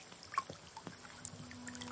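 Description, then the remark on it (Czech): River water trickles and burbles steadily, with small splashes and drips popping out of a soft, continuous flowing wash. No voices are heard. “To je asi ten fenomén. Stále teče nepřestává.”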